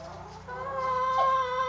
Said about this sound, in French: D'entrée de jeu, on a les poules. Ils sont une gang quand même. Ici, on a environ 150 poules avec le coq Georges. Il est costaud quand même.